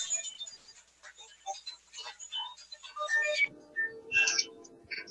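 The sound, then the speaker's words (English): A mobile phone ringtone plays a bright, chirpy electronic melody of quick repeating notes, moderately loud, with a low murmur joining in toward the end. “that would be Annette's phone going off up there”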